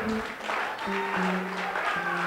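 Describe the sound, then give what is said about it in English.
An audience at a Sunday morning church service claps in a loose, scattered, unhurried way, a steady wash of hand claps over sustained low tones that sound like music or held voices. “You are clapping as if you're not quite awake this morning.”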